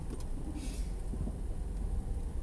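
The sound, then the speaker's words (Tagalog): A steady, muffled low rumble from inside a car stuck in traffic, with faint hiss above and no one speaking. “At nasa loob ako ng sasakyan kasi medyo traffic na naman.”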